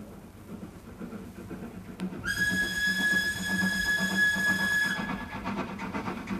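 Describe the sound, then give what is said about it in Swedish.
A train from Stettin to Rome rumbles steadily along the rails, a low rhythmic clatter throughout, with a long, shrill whistle sounding for a few seconds in the middle. No one speaks. “Jag började genast förbereda min resa som gick till Stettin med båt och därifrån vidare med tåg till Rom.”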